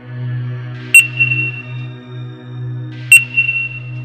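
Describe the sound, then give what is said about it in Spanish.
Two sharp electronic beeps about two seconds apart from a store cash register's barcode scanner, each a bright high tone that lingers briefly, over a steady low electrical hum, in the early morning hours. “Sonaba como cuando éstas detectan el código de barras al pasar productos por el lector.”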